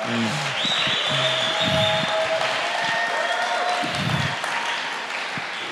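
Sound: audience applause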